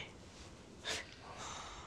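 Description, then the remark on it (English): Heavy breathing during a yoga breathing exercise: a sharp, forceful exhale bursts out, followed by a longer, softer breath trailing off. No one speaks. “He was just helping me with breathing.”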